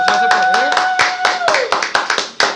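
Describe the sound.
Applause of loud, sharp hand claps at an uneven, fairly quick pace, with a steady sustained voice-like tone running under the first half.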